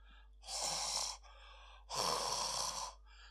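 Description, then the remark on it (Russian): A voice imitates heavy breathing: two long, loud, breathy exhalations, each about a second, separated by a short pause, with no talking. “Дышал медвежонок.”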